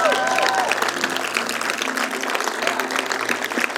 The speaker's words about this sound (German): Komm, lass uns denen mal einen Applaus geben.